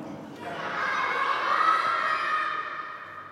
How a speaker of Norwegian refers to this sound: Vi er sultne, roper barna i julegudstjenesten til ære for Sankt Nikolaus.